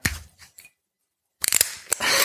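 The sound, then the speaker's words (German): A cork being pulled theatrically out of a wine bottle: short scraping, creaking bursts, a pause, then a quick cluster of sharp clicks and squeaks ending in a brief breathy hiss. No one speaks. “Ähm, ich zieh mal ganz theatralisch den Korken.”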